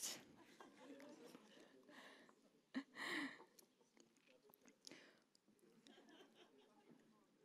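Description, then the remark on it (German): Someone bites into a Snickers chocolate bar with a sharp snap, then chews noisily, with soft crunching and mouth sounds continuing throughout. “Ich habe auch einen Snickers mitgebracht.”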